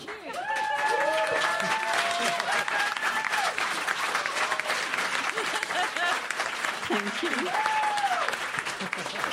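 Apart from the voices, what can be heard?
audience applause and cheering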